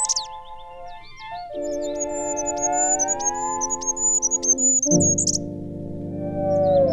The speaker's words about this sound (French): Et là, les mains jointes, il contemplait émerveillé les reflets du soleil couchant à la cime des arbres et les oiseaux chantaient la prière du soir.